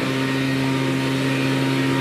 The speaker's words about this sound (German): ja. diese komischen Laubbläser überall. Auch unangenehm.